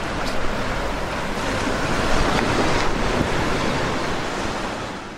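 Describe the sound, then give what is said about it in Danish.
Steady roar of sea waves washing in continuously below a coastal cliff in Nørlingby, with a broad rushing surf sound and some wind buffeting the microphone, no voices. “sidder og nyder sin kaffe og kigger ud på havet”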